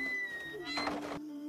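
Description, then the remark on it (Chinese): Wei Yingluo shuts a heavy palace gate with a bang: a dull, rattling thud, one short burst of noise that cuts off abruptly, over a steady faint musical drone. “魏璎珞冷冷扫了李煜一眼，砰的一声关上宫门。”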